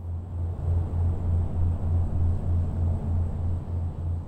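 A steady industrial rumble from the river port of Baton Rouge, with a deep, evenly repeating mechanical pulse and a wash of traffic noise from the bridge over the river, continuous throughout and no voices.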